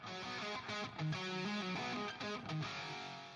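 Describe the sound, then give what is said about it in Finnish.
A distorted electric rhythm guitar plays a punchy, tightly chopped riff with short stabbed chords and brief gaps, loud and upfront with no talking over it. “mä en voi liikaa teille korostaa … neroutta – komppikitaristina. Kuunnelkaa tää.”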